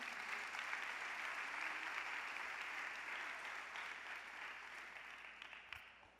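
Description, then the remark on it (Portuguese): A church audience applauds steadily during a service, a dense, continuous wash of many hands clapping that holds level for several seconds before easing off slightly toward the end, with no voices standing out. “Aplauda, vai, vai chegar esse dia.”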